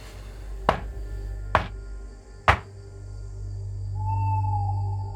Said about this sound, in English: you wake up it's the middle of the night. Mm, gotta take a leak. You hear this through your groggy haze. A pounding on the door.